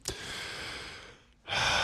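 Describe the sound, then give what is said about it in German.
A deep breath: a long airy inhale, a brief pause, then a louder, rushing exhale. No one speaks. “Atme erstmal tief durch”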